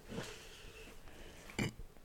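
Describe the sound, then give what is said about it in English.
A single short, throaty burp pops out near the end, soft, after a stretch of quiet breathy background noise with no talking. “Sorry, I burped.”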